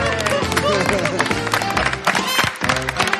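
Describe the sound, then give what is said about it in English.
A crowd at a Drag Race roast bursts into loud, sustained laughter and applause for Trinity the Tuck, a dense wash of clapping and cheering voices that fills the whole three seconds without a break. “Trinity the Tuck has garnered laughter and applause at a drag race roast.”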